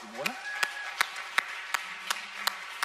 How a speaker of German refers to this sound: Applaus nochmal für meine liebe Frau